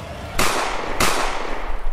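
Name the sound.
gunshot sound effect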